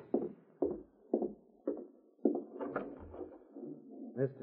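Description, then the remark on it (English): A door being opened: a run of dull, evenly spaced thumps and rattles from the latch and wood, then a short creak as it swings, with no talking. “All right, I'll open it myself.”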